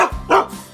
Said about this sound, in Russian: это моя собака, немецкая овчарка Я подобрал его еще щенком на улице